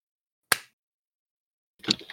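A crisp, sharp hand clap rings out alone, followed just over a second later by a second, rougher and more drawn-out clap-like burst. No one speaks.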